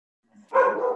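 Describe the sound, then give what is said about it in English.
A single sharp dog bark, preceded by a soft low grumble, then rings out loud and sustained for about half a second with no talking. “Yeah, sorry, I'm having a dog barking issue.”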